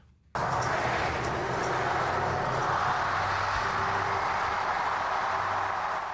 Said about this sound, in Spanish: Hace dos horas el cambio de año ha llegado a los Estados Unidos. Este es el sonido de Times Square.